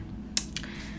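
A phone is set down against a microphone: one sharp close-up knock, followed by a softer clack a moment later, over a low steady rumble. Nobody speaks.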